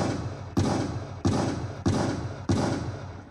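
Four loud gunshot sound effects ring out at a steady, slightly uneven pace, each a sharp blast followed by a long echoing decay that blends into the next.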